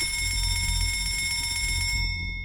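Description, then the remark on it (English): A ship's engine room telegraph bell rings as First Officer Murdoch signals all stop to the engine rooms on sighting an iceberg: a continuous bright metallic ringing, like a rapidly struck bell, holds steady with sharp high overtones over a low rumbling hum before cutting off abruptly near the end. Nobody speaks. “First Officer Murdoch realizes just how fast the ship is going and rings down to the engine rooms, all stop.”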